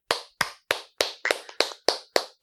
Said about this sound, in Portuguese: Eu queria primeiro aqui uma, uma salva de palmas aqui